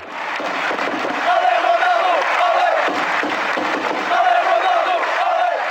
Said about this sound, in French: Ici, son nom est scandé au rythme des Olé, Olé.